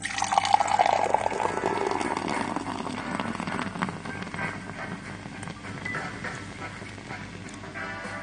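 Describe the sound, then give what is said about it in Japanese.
Soda is poured into a glass to mix with Jägermeister, with a brief rising gurgle at the start, then settling into a steady fizzing and crackling of bubbles that fades gradually. No one speaks. “ソーダを注ぎます。”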